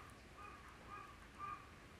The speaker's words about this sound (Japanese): はいカラスが通過いたしまして